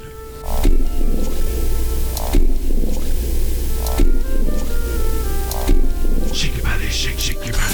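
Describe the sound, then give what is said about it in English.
A loud, low gurgling growl from a person's stomach, turned up, drenched in reverb and looped so the same rumbling phrase repeats about every second and a half without a break. “Now I'm going to loop it”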